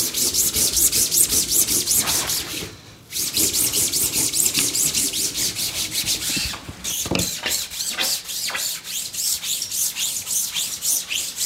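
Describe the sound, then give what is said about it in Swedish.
Steady, rapid rubbing strokes with a baren across the back of blue fabric laid over a wooden board to print a motif, a rhythmic scratchy swishing that repeats many times per second with only brief pauses, loud and continuous with no talking. “Så gnuggar jag på baksidan med min minbaren.”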